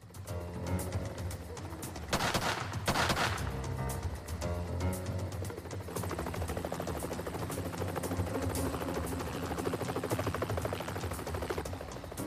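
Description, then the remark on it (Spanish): A helicopter's rotor thumps steadily overhead as it watches a barn from above, with two loud, harsh rifle shots fired by a SWAT team sniper close together near the start, before the rhythmic chopping continues alone. “Mientras un helicóptero vigilaba al granero desde arriba, los miembros del equipo SWAT tomaban posiciones alrededor del perímetro. Un francotirador del equipo abrió fuego”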